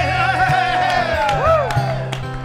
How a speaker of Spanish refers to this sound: Aplauso para el guitarrista. ¡Eh!